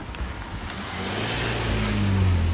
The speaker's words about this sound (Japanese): 車が来た